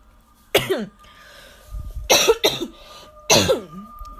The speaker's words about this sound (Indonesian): eh batuk oke okay.